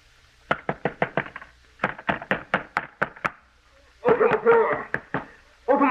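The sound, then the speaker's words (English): A man pounds loudly and rapidly on a door in quick bursts of sharp thumps, with a pause before a shouted voice breaks in over the noise. “Keep him from pounding on this door.”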